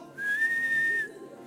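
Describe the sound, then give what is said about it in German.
A single sustained whistle, clear and steady at one pitch with a slight rise at the start, lasting about a second before cutting off, alone with no talking. “Ich hoffe, du weißt, wie man pfeift.”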